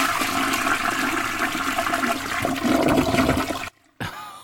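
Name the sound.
toilet flush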